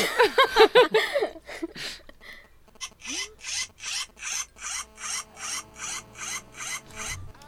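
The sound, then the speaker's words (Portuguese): A plastic zipper is pulled in a fast series of short, raspy zips, about a dozen evenly spaced strokes, fairly loud, after a brief voice-like burst at the start. “É um som de zíper de plástico, gente.”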